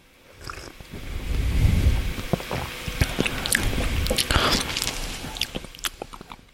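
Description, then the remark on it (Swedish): Tea, a blend of the first and second steepings, pours from a pitcher into a small tasting cup, a gurgling splash that runs for several seconds with soft clinks and handling noises, with no talking over it. “Så jag har ju blandat dragning 1 och dragning 2 i en, en, kanna här som jag häller upp i min lilla smakkopp.”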